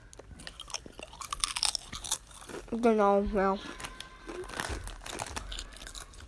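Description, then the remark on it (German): Crisp crunching of supposedly spicy potato chips being chewed by two people, with scattered crackles and crinkling throughout, while a man briefly speaks a couple of words partway through. “drücken uns gerade fette nicht scharfe, angeblich scharfe, die sind aber gar nicht scharfe Chips rein.”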